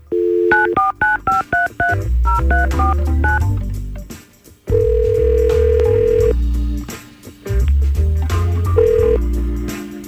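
A quick run of touch-tone dialing beeps gives way to long, steady electronic ringing tones of an outgoing call placed by the Y100 radio morning show, loud, over a deep low backing, with no voices.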